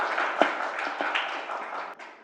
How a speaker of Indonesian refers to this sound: Uh, beri tepuk tangan dulu yuk buat Om Kumis podcast.